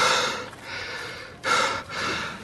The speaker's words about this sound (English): He's breathing heavily and lagging behind, barely able to carry on a conversation.